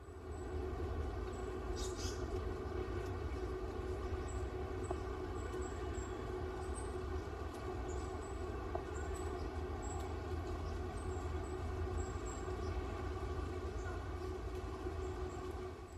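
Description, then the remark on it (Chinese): A dense, steady rustling flutter of several white-eye birds in a big tree beating their wings together, with faint, thin high-pitched chirps scattered over the soft whirring; recorded standing under the tree. “好，那其实呢，是绿袖眼的翅膀，很多绿袖眼的翅膀一起在拍打的声音。”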